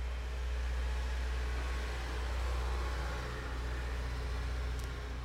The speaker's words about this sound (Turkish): Dışarıdan geçen arabanın sesi umarım çok rahatsız edici olmamıştır. Artık camlar daha açık.